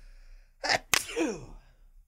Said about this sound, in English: feel a sneeze. You feel a sneeze? Right here. Well, if you sneeze, I guess.